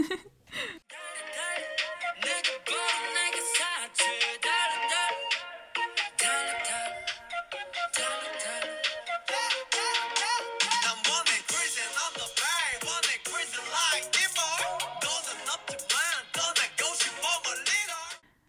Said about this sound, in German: da man hört wieder diese Pfeife, ne? So ein so ein Pfeifen